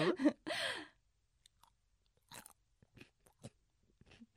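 Crisp, crunchy chewing of a salad of snap peas and new potatoes: after two loud bursts at the start, several short, sharp crunches come at irregular intervals, each brief and crackly, with quiet pauses between bites.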